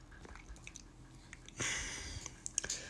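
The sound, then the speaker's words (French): Wet sloshing and squishing of water in a hot tub with a person sitting in it, with small splashes and drips that swell into a louder, continuous swirl near the end, and no talking. “By the way, je suis dans le spa, c'est pour ça que des fois vous allez entendre euh, le spa.”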